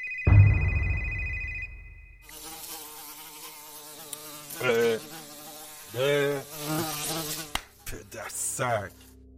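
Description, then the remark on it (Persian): A fly buzzes close by, its droning hum steady at first, then swelling louder in several passes as it circles near the listener's ear, the pitch wavering with each approach. “تو این دشت و دمن جز سوراخ گوش ما سوراخ دیگه پیدا نکردی؟”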